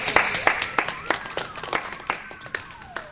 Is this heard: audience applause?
yes